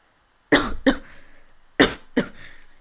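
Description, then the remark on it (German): Two sharp double coughs from one person, each pair a harsh burst followed quickly by a second, with no talking in between. “ja, ich, ich hab's euch gesagt, ich werde husten heute.”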